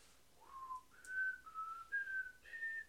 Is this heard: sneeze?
no